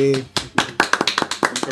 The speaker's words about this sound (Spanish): Un aplauso entonces, chiquillos.